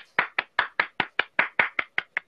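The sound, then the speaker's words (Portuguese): A steady run of about a dozen sharp hand claps at a brisk, even pace, loud and crisp with no voices, sounding like a single person clapping. “É, muito obrigado aí pelas palmas.”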